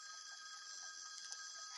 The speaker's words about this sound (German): Telefon mal wieder am Start.